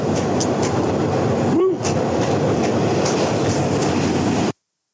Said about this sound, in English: They're on the subway. Hey, that was New York subway, baby.